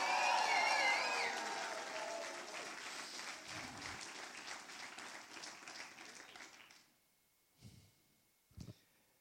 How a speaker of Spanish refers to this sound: Si usted lo cree, dele su mejor adoración, su mejor aplauso, dele un grito de victoria.